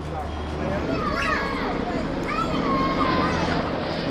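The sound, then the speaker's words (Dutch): A police helicopter drones overhead above a favela, its steady, loud rotor roar filling the background while voices and children's chatter rise faintly through the noise. “Dat is een helikopter van de Meestal als er een inval eh, in een favelle is met uh, gepantserde auto's beneden, krijgen ze meestal uh, eh, escort.”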